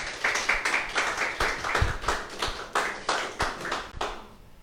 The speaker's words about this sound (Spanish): Qué bueno, así que denle fuertes palmas a Dios.